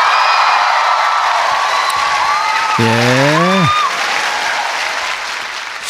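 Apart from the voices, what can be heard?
crowd cheering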